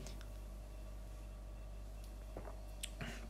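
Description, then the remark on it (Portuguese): Faint sips and swallows of ginger ale, a few soft wet gulps near the end against a quiet background hum, with no talking. “Por acaso ainda não tinha bebido água. Já estava a secar mesmo.”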